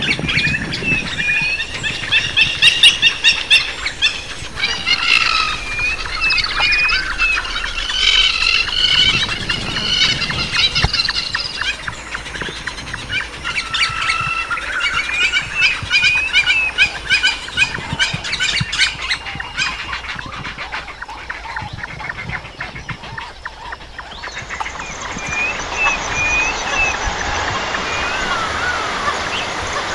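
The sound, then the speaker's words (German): Dense, overlapping bird calls and chirps at the Congo River fill the air, high and busy with repeated squawky phrases, over a steady rushing background like flowing water, thinning out toward the end. “und am liebsten auch zurückreisen an den Congo River, wo ich unseren Vogel der Woche getroffen habe.”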